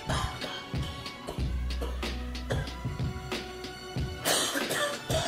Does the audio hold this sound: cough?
yes